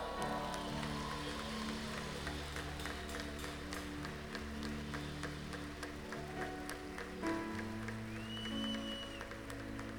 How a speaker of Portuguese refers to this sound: Pode aplaudir ao Senhor, vai.